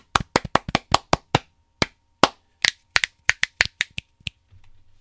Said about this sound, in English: Okay, so if we can do a clap here, so I just know where to go. Just do a bunch of claps here.